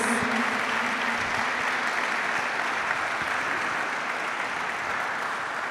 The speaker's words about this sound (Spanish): Yo le daría un aplauso al Rey de Reyes, al Señor de Señores.